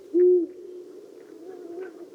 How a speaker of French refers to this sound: moi j'ai une affection particulière pour euh, cette espèce, puisque Marcel Pagnol en parle dans La gloire de mon père, la fameuse grotte du gros hibou. Donc le gros hibou, bah, c'est le hibou grand-duc.